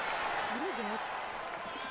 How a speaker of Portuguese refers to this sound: Merece até uma salva de palmas aqui.